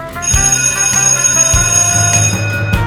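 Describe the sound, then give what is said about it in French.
A school bell rings loudly and continuously at the end of recess, a bright metallic clang with repeated strikes blending into a sustained ringing that lasts the whole moment, with no voices. “La cloche sonne. C'est la fin de la récréation.”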